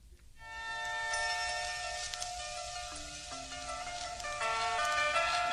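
A hip-hop track plays with a bright, melodic instrumental line of sustained notes, staying at a steady, fairly soft level throughout with no voices.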